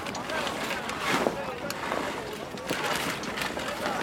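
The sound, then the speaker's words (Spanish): Busy shipboard activity on the water as a crew of sailors prepares a caravel to sail out to the open ocean, with wind rushing and indistinct voices of the crew calling out amid creaks and clatter, steady throughout. “Y eso que escuchamos es un grupo de marineros preparando una carabela para salir al océano abierto.”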